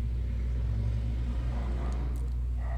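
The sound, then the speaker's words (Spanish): A motorcycle engine rumbles by with a low, droning growl, holding steady and swelling slightly partway through before easing off. No voices are heard. “Ay, malditas motos.”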